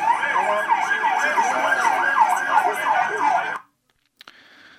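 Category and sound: vehicle, ambulance siren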